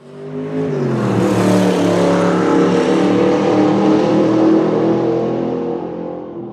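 A 1980 Alpine A310 sports car engine revs loudly, its throaty pitch climbing early on, then holding a steady roar before easing off at the end; no voices.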